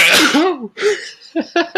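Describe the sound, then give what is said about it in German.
A loud sneeze bursts out, followed by a second breathy burst and a few short, quick puffs of breath or stifled laughter. “Gesundheit.”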